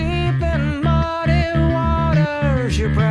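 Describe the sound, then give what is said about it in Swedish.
A loud rock band recording from an album released in 2006, with dense, sustained guitar chords over a steady, pulsing low-end rhythm, playing continuously for a few seconds with no talking. “Så Vi ska till ett utsålt Globen som jag var på och gick och tittade på det här gänget som låter så här.”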